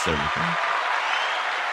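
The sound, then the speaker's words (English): Steady, dense applause given to welcome a guest to a show fills the whole moment at an even loudness, with a brief voice heard over it at the very start before the clapping continues alone. “I'm going to give you some applause.”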